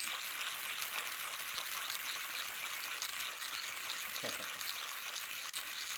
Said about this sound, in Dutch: Het is een handmaler, het duurt iets langer dan een elektrische maler.